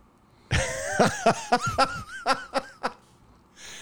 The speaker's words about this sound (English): are you okay? Because you have been coughing up half of a lung. I'm trying, man.